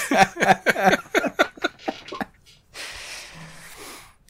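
A quick run of choppy, laugh-like vocal bursts fades out. After a short pause comes one breathy, hissing sneeze that trails off softly.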